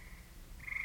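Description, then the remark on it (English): Frogs croak steadily in a dense chorus, a high trilling tone swelling toward the end over a low, murky background rumble, with no voices. “It's all frog marshes, old Roman walls”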